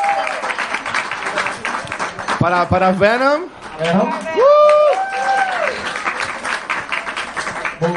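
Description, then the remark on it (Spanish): Audience applause, a dense and steady patter of many hands clapping throughout, with a man speaking briefly over it and loud whoops and cheers rising in the middle. “Aplauso para. Muy bien.”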